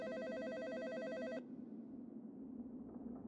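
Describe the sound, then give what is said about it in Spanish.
A telephone rings with a bright, trilling electronic tone for just over a second, then cuts off, leaving a low hum of background noise. The ring is clear, with no voices. “Traté de ignorar lo ocurrido, pero aproximadamente 10 minutos después sonó el teléfono.”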